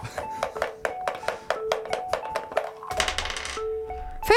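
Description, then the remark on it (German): A die clatters across a hard tabletop in a quick series of sharp clicks and taps, ending in a denser rattling burst as it settles. No voices are heard. “Ich nehme jetzt einen anderen Würfel.”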